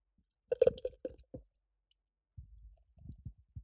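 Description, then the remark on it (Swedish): A beer bought at Systembolaget, not a luxury beer, is cracked open with a quick fizzy snap and clicks, then after a short pause it is poured in a burst of low, bubbly glugging. “Jag har ju då sparat, jag väntar med att öppna den här för att det ska bli bra, bra ja. ljudupplevelse för lyssnarna.”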